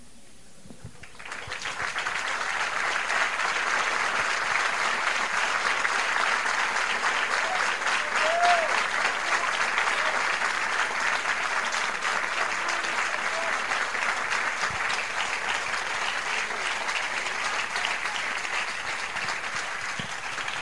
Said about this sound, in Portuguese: Recebe, aceita um aplauso deste teu povo.